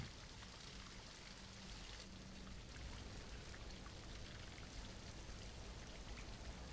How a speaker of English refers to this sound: I remember how complex it was to create that entire wall of water.